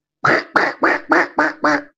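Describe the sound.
A person imitates a duck with six quick, nasal quacks in a steady rhythm, fairly loud, with no other talking, to calm a crying small child near other passengers.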